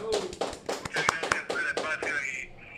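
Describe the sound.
Scattered clapping from a small group, sharp irregular claps about a handful per second, mixed with voices talking and cheering over them before the claps fade out near the end.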